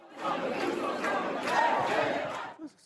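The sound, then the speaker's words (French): A crowd of protesters in the Les Halles shopping centre in Paris chants and shouts together, chanting against Article 49.3 and for retirement at 60, in a loud, sustained roar of many voices for nearly three seconds, then the noise drops off abruptly. “un climat éruptif à Paris que de nombreux manifestants ont envahi le centre commercial des Halles avant de déambuler dans la galerie commerciale, puis dans les couloirs du métro et du RER.”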